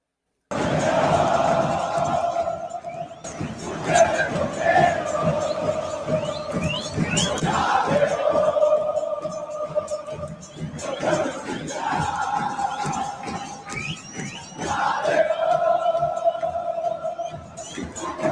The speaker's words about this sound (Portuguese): música da geral do Grêmio, o Grêmio Copeiro